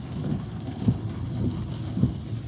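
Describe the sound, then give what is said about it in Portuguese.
A newly replaced car windshield wiper blade drags across the glass with a rhythmic squeak on each sweep, about four strokes, recorded with a mobile phone held close to it, over a steady hum of the moving car's engine and road noise. “Mas é que a paleta antiga tava começando a arrastar no para-brisa, sabe aquela paleta de chuva?”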